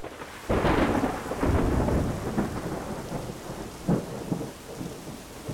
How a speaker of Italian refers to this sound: Lo scrosciare delle acque di un temporale però impedisce ai ricercatori di trovare qualcosa. È troppo difficile, pericoloso anche.